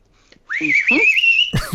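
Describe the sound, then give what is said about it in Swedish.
A person gives one loud, sustained whistle lasting about a second, holding a steady high pitch with a slight waver, while voices murmur briefly underneath and talking resumes right after. “Gud vad bra du visslar.”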